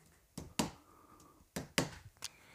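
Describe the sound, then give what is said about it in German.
Dull percussive taps of fingers against the body, a tapping technique used to hear whether it sounds hollow or whether pus is present, struck in two quick pairs with a final single tap, each short and crisp against a quiet background with no talking. “dieses dieses Abklopfen, machst du das auch nochmal?”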